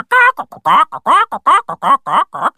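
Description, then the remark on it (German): Excited hens on a farm flap across the yard, clucking loudly in a rapid, uneven run of calls, longer squawks alternating with short clucks, with no pause for nearly three seconds. “Die Hühner flattern aufgeregt über den Hof und gackern wie wild umher.”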